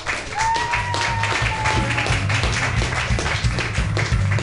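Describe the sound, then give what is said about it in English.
Audience applause at a comedy show at Mutiny Radio as a comedian is introduced: dense, steady clapping from many hands that stays loud for the whole stretch, with a thin whistle-like tone briefly drifting over it. “Clap wildly.”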